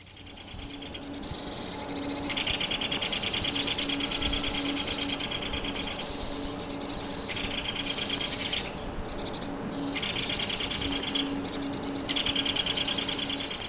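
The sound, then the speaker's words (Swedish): Great spotted woodpecker calls, a busy and almost continuous stream of sharp, rapid notes that swell and ease in bursts, with no talking. “Jag ska ta och lyssna på den där större hackspetten en gång till.”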